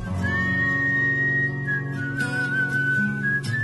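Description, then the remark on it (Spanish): Someone whistles a song tune, holding long, clear notes with a few pitch changes, over a steady musical accompaniment underneath. “En escena, silbando esa canción.”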